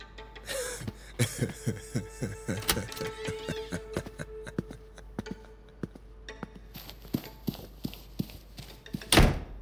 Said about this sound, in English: I locked the door with both deadbolts